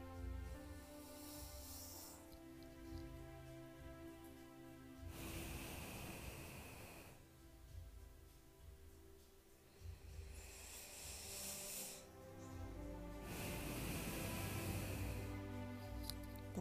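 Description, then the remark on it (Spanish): Slow, deep breaths drawn only through the nose, two long airy inhale-and-exhale cycles, fairly loud, over a soft sustained musical drone. “Esto lo vamos a hacer únicamente con nuestra nariz. ¿Ok? Fíjate bien, cierra tus ojitos y escucha cómo lo voy a hacer. Inhalo.”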